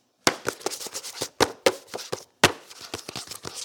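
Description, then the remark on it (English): Sharp, irregular scratching and scraping bursts, a dozen or so in quick uneven succession and fairly loud, as a trapped bird's talons scratch at the inside of a house wall. No voices. “Talons scratching at the inside of the wall. Like it cannot get free.”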